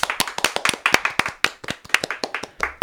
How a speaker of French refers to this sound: Et c'est une victoire pour le joueur français, il mérite un applaudissement. Bravo.